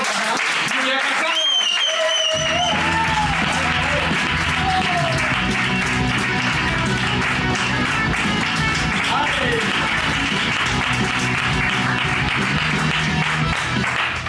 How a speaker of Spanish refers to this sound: Oye, un fortísimo aplauso